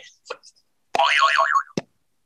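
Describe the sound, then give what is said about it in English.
A springy cartoon boing rings out, its pitch wobbling up and down in quick waves before ending with a sharp thud, preceded by a few brief faint clicks. “I wish there was a more gentle version of the boing sound.”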